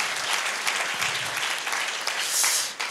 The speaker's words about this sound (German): Komm, lasst uns doch mal den Applaus geben, die fern, von fern und nah zuschalten.